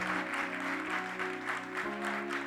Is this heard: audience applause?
yes